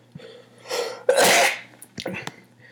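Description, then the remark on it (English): A single loud sneeze brought on by allergy season, with a sharp intake of breath before the burst, followed by a few short breathy sounds and a faint steady hum underneath. “Um, got to sneeze, but we're going to let a couple people roll in here.”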